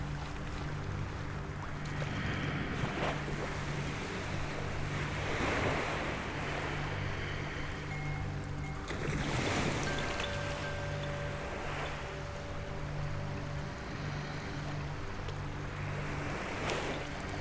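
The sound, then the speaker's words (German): Ocean waves wash steadily onto a beach, with broad surges of surf rising every few seconds over a constant roar, plus a low rumble and some wind. “Immer und immer wird der salzige Geruch ausströmen und bis in die Unendlichkeit wird es wellen und Strandspül.”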